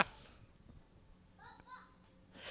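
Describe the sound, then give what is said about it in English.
A child screams outside, a single brief high-pitched cry lasting under a second, faint over a low background hum. “there, there's one right there screaming outside.”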